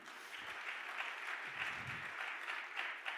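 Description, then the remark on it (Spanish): An audience applauds loudly for the Lord together, a dense, steady wash of many hands clapping at an even loudness throughout, with no voices standing out. “en otro aplauso fuerte al Señor.”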